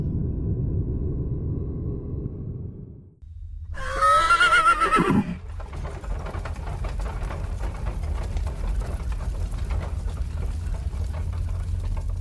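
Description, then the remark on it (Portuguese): A loud whinny from horses pulling a carriage rises and falls in a quavering cry for about a second, set against a steady low rumble that continues before and after, with a grainy hiss filling the rest. “Peraí, aquilo ali são cavalos?”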